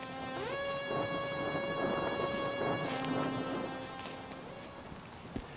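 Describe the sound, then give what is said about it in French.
A steady downpour hisses over a moor with a low thunder-like rumble, while a sustained tonal drone hums beneath; the storm fades slightly near the end, with a brief sharp crack. “À intervalles plus ou moins réguliers, un éclair zébrait le ciel, accompagné d'un bruit assourdissant et souvent suivi d'un coup de vent qui se faufilait entre les brins d'herbe.”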